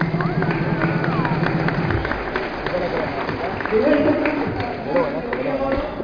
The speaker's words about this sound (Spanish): Así que un fuerte aplauso para ella.